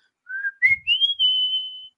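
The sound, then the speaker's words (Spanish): A person whistles a short, tuneful love-song melody, a few rising notes that settle into one long sustained tone, clear with no talking over it. “no, pues Chiflidos para enamorar.”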